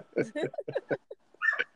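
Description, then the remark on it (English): A dog barks from another room, a quick run of five or six muffled barks followed by a brief pause and a higher, whiny yelp. “who dog is on the show with us? Oh, y'all can hear that?”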